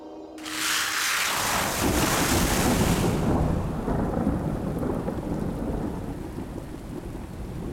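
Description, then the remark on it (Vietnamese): A sudden roll of thunder breaks in and rumbles heavily for a few seconds over steady, loud summer night rain falling from a dark sky, which keeps pouring on as the thunder fades into a low background rumble. “Mưa mùa hè tươi mát đang đổ xuống từ bầu trời đêm đen kịt khi BC bước lên một chiếc jeep.”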